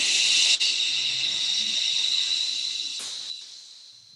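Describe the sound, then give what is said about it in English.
A long, audible breath pushed out through the mouth after breathing in through the nose, breathy like a steady hiss, slowly fading over about four seconds with no talking; part of a breathing exercise. “So here we go breathing in the nose and out through the mouth with sound, just following that sound.”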